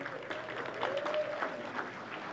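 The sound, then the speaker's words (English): An audience breaks into steady applause welcoming the speaker's wife to the platform, a dense wash of many hands clapping at once with a brief rising cheer mixed in, sustained at moderate loudness throughout. “I didn't get quite that applause, but that's totally Totally fine.”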